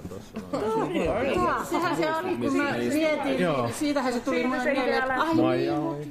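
A steady murmur of many overlapping voices, a busy hubbub of indoor chatter with no single speaker standing out and a few soft chuckles mixed in, from a group gathered for the second read-through rehearsal of a summer radio musical.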